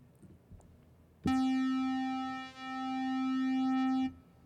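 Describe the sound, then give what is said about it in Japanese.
A steady, buzzy synthesizer square-wave tone, one of the basic oscillator waveforms, sounds alone for about three seconds, rich in evenly spaced harmonics, loud, with a slight dip in volume midway before it cuts off abruptly. “で最後の、え基本形4つ目なんですけどこれが、えスクエアウェーブと、え言われていて、まあ、日本語で区形波短い形の波と言われるんですけど先にじゃあ聞いていきましょう。”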